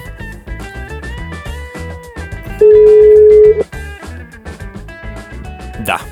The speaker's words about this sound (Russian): Ну, давайте послушаем. Не слышно. Э, слышны только гудки.